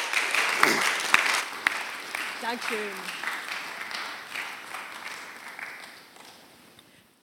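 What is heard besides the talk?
audience applause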